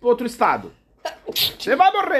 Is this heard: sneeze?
yes